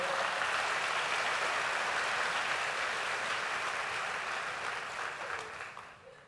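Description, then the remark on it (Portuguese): An audience applauds the name of Jesus in a dense, steady wash of clapping that holds strong for several seconds, then gradually thins and fades toward the end, with no one speaking over it. “Aplauda o nome de Jesus se você quiser e puder.”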